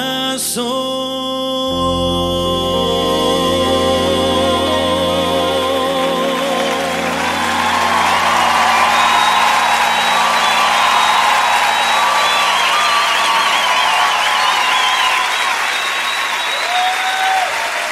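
Music fades into loud, sustained audience applause, a dense wash of clapping lasting several seconds, with scattered cheers and a whistle rising above it.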